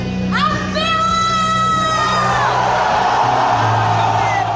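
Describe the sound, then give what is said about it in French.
A crowd cheers loudly at the Friday-morning opening of the Leclerc supermarket in Clisson, with a high rising whoop cutting through the dense, steady roar of many voices shouting and yelling together. “Quand on tape Leclerc Clisson dans un moteur de recherche, on tombe assez rapidement sur des vidéos de l'ouverture du magasin le vendredi matin.”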